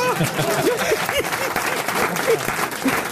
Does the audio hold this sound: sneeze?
no